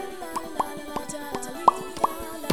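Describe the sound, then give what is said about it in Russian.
A voice imitates a fish swearing by making a string of wet mouth plops, about eight irregular pops, a few louder than the rest, with no talking. “Как говорят рыбы. Это ругается рыба.”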